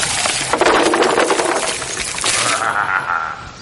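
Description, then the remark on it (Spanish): A loud, dense burst of cracking and splintering wood with scattered clattering pieces as the walls of a little wooden house, blown on by the wolf, give way and fall, settling after about two and a half seconds into a fainter rattling tail as debris comes to rest. “El lobo sopló con más fuerza que la vez anterior, hasta que las paredes de la casita de madera no resistieron y cayeron.”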